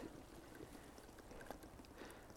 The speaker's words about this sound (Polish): Dolewamy wody.